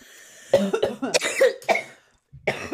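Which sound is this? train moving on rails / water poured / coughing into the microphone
coughing into the microphone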